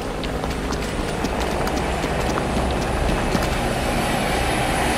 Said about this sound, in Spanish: Estamos, no sé si se oye bien, pero hay un helicóptero sobrevolando muy cerca. Muy, está, está volando muy, muy cerca, está muy bajo. Ahí viene.